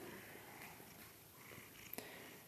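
A sleepy kitten purrs softly and steadily, a low continuous rumble with a faint rhythmic pulse and a couple of small clicks near the end, no voices.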